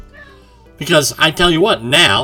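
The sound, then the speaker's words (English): A soft cat meow sounds in the background for a moment before a man starts talking loudly over the top of it, drowning it out. “and that's my cat in the background agreeing with me”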